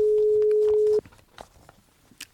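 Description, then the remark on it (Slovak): A telephone ringback tone, heard while calling a house in the Myjavské kopanice, Slovakia, sounds once, a steady mid-pitched beep lasting about a second, followed by quiet background shuffling and faint noises with no talking. “Zvoní.”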